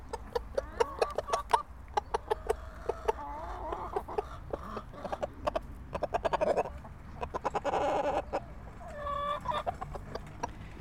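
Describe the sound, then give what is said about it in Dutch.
A rooster clucks in repeated short bursts, with sharp rhythmic clucks and a few drawn-out calls against a quiet outdoor background. “De haan komt even polshoog te nemen.”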